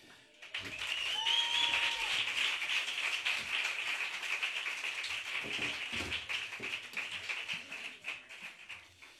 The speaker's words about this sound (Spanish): Pues también se va a llevar el primer aplauso